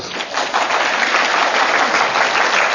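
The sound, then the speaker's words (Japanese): An audience at a seminar breaks into steady applause, a dense wash of many hands clapping at once, loud and sustained for the whole stretch without any voices standing out. The people clap to show they are willing to become 'accomplices' by sharing content. “なんか共犯者やってもいいかなって思った人をちょっと拍手してもらっていいですか”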